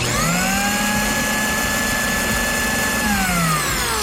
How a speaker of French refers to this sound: Qu'est-ce que tu fais avec un mixeur à cette heure-ci